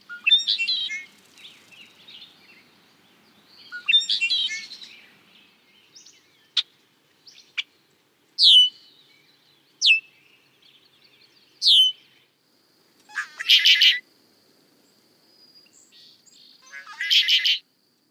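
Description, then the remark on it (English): Red-winged blackbird calls, the males' characteristic call while staking out breeding territories early in the nesting season, ring out in a series of sharp, clear chirps and buzzy trills, spaced irregularly over several seconds, loud against a quiet background with no talking. “Males stake out their breeding territories by flaunting their brightly colored wings, chasing off intruders, and singing out their characteristic call.”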